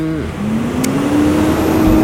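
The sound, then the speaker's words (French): An SG Énergie delivery truck's engine drones past, its pitch shifting and climbing steadily as it goes, a loud continuous rumble with no voices over it. “non, c'était le camion SG Énergie, merci.”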